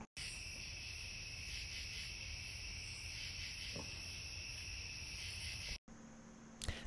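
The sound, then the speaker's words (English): Cicadas drone in a steady, shrill chorus in a garden on a quiet summer night, the buzzing unbroken except for a brief cut near the end before it resumes. “That's our garden on a summer night. You can hear the cicadas.”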